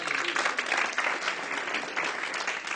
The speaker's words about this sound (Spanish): Podemos ser llenos del Espíritu Santo de Dios. ¿Cuántos aplauden al Espíritu Santo?